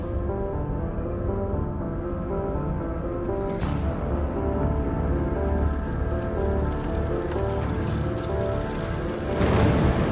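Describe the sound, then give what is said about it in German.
Steady rain pours down, a dense continuous patter on a hard surface with a brief brighter splash partway through and a slight swell near the end; no voices. “Nach der Nummer jetzt auch noch im Regen fahren.”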